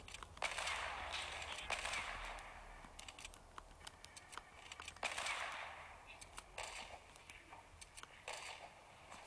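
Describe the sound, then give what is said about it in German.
A series of sharp, bright video game gunshots, one shot fired from each weapon in the player's inventory, one after another with gaps between. Each crack rings out with a short hissing tail, and no one speaks. “Ich habe von jeder Waffe jetzt einen Schuss in mein Inventar abgegeben.”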